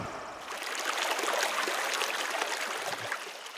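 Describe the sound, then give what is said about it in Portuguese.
Children play and splash in a stream, water splashing and rushing in a steady wash of churning sound with small bursts of spatter throughout, no voices. “e alguns deles estavam brincando na água ali enquanto ela falava.”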